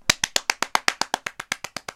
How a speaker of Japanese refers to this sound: 拍手